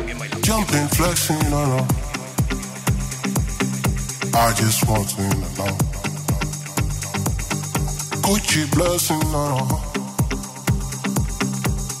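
An electronic dance track plays loud and full, driven by a steady pounding kick drum under bright layered synths, with a few swelling sweeps rising through the mix.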